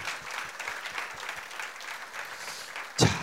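An audience at a live talk show claps steadily for a guest in a dense, even patter of many hands, moderately loud, with a sharper burst of clapping near the end.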